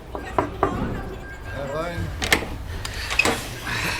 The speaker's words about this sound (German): Die drei Detektive nahmen den Aufzug in den dritten Stock, fragten oben angekommen eine Krankenschwester nach dem Zimmer und wenige Augenblicke später klopfte Justus an die gelb lackierte Tür.